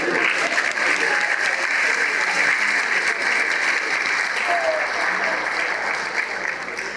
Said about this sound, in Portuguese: A propósito, dê uma salva de palmas para ele.